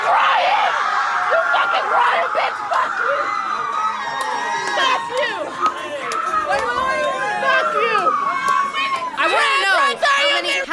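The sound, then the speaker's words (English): A crowd of people screaming hysterically, shrill overlapping shrieks and frantic shouting filling the whole scene loudly and continuously, with chaotic voices layered over one another. “So the screaming, the hysterical screaming, they actually wanted a ransom for her.”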